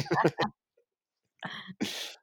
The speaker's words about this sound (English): I mean, uh, I, I coughed. Sorry.